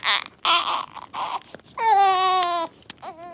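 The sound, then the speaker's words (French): A newborn baby cries: a few short, raspy, breathy bursts give way to a long, loud, high-pitched wail, then another cry starts just as it ends. “l'enfant tant attendu vient au monde.”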